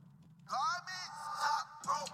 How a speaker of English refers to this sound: when I play uh, Swerve's theme, it sounds a little bit like this